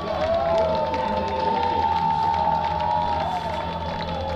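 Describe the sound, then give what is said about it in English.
A large stadium crowd at the Hawaii Bowl college football game on Christmas Eve cheers in a steady, sustained roar that fills the whole stretch, with a faint wavering tone riding over the noise and no clear voices standing out. “Again, a nice crowd here on Christmas Eve for the EasyPost Hawaii Bowl.”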